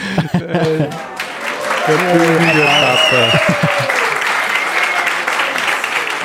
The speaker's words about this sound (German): Wie ist das von der Lautstärke her? Den Applaus, war der laut genug? Gut, wunderbar. Der ist laut genug. Der ist laut genug.